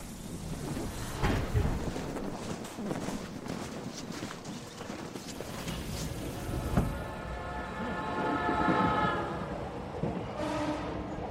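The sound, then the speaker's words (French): A Marunouchi line subway train heading toward the city centre at rush hour runs with a steady rumble and rattling clatter, then a rising electric motor whine takes over partway through, loud and continuous throughout with no one speaking. “Un parapluie à la main, il prend la ligne Marunouchi en direction du centre-ville.”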